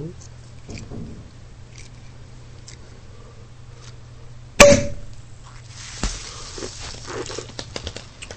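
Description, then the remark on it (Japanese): A bottle of rosé is uncorked with one sudden loud pop, followed by a steady fizzing hiss and a few soft clicks over a low background hum. “開けますからね。ちょっと怖いんだよな、これ。今日のローゼなんですけど、まあ、白で練習してたんで、絶対うまくいきます。”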